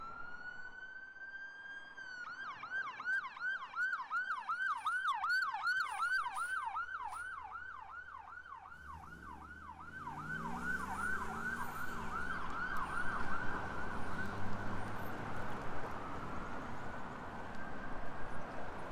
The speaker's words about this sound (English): So we have a siren coming. Just hang on here. Uh, I'm gonna have to cover my ears here.